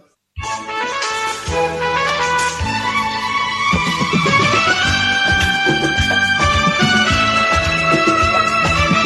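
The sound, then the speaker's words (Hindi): A Bollywood song from a Shah Rukh Khan film plays loudly and continuously, with layered melodic instruments over a steady rhythmic beat, starting abruptly after a brief moment of silence and with no one talking over it. “You're able to hear the music, right?”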